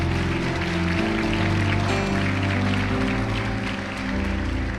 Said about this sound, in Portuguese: Pode aplaudir.